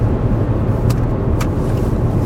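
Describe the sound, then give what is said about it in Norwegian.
Steady road rumble from a car in motion as it is overtaken by another car, with tyre and engine noise holding an even level throughout and two faint, brief clicks partway through; the driver flashes at the overtaking car. No one speaks. “han misliker så sterkt å bli forbikjørt på en helt lovlig og grei måte, for så vidt.”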